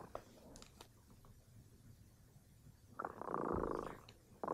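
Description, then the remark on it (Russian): A cat named Remota purrs softly in a low, steady rumble that swells into a louder, fuller stretch near the end before easing off. “Кот Ремота запел свою песенку.”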